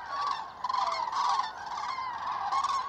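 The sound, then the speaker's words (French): A loud, dense chorus of cranes calling overhead as evening flocks arrive in waves from surrounding cornfields where they fed, heading to roost on lake islands, many bugling voices overlapping continuously in swelling waves, with no pause and no speech. “Le bruit monte, les vols du soir arrivent, par vagues, dans une ambiance assourdissante.”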